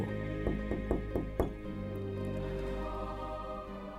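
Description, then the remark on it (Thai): Five firm knocks on the door of a throne room, made by a woodman, in a quick, slightly uneven series, clear, over a steady background of sustained music that continues after the knocking stops. “ชายตัดไม้ก็เลยตัดสินใจว่า ถ้าเช่นนั้น เขาจะไปหาออสบ้าง เพื่อขอหัวใจ ดังนั้น ก็เลยเดินไปที่ห้องบัลลัง แล้วก็เคาะประตู”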